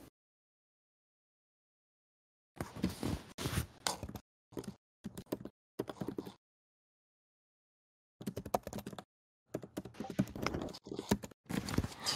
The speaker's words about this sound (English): My keyboard.